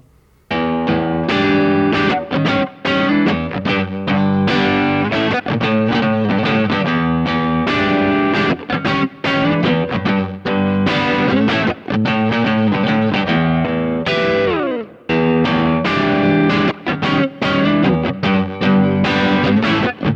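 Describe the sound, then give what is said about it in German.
A crunchy, overdriven electric guitar plays a rhythmic riff of chopped chords and single notes, loud and steady throughout, with a brief pause and a downward slide midway; no one speaks. “Das, ähm, ich gehe nochmal dasselbe durch jetzt bei einem Crunch-Beispiel.”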